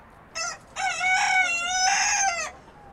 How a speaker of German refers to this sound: Das ist nicht der berühmte Hahn Maurice von der französischen Atlantikinsel Oléron, sondern ein gewöhnlicher Hahn aus Franken.